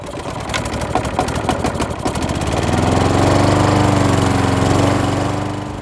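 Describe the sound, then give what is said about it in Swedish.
A petrol lawn mower with a Briggs and Stratton engine runs steadily, a rough buzzing drone with a rapid mechanical chatter at first, then settling into a louder, even hum. “Senare, när den värsta eftermiddagshettan har gett med sig, då kommer gräsklipparen fram och vi får lyssna till Briggs and Strattons aftonsång.”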